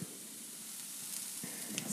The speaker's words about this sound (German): Ich rühre ein bisschen herum in der Pfanne. Und lasse es noch kurz stehen. Wie gesagt, sobald wir Salz zugeben, wird es schon, wird's schon äh, Wasser entzogen und ich, will's noch, ich will, dass der Zwiebel auch ein kleines bisschen anbrutzelt.